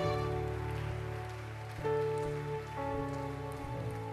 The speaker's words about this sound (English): Clap your hands.